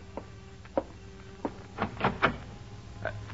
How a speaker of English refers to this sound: Until one evening when the expected payment is not in the mailbox. And an hour later, someone knocks on the door of your apartment.